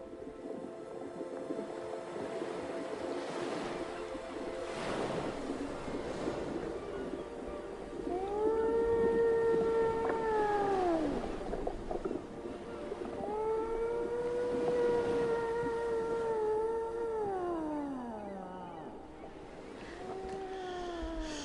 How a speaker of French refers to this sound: Bon, c'était un extrait vidéo YouTube de Chant de Baleine pour la relaxation que je vous recommande chaudement.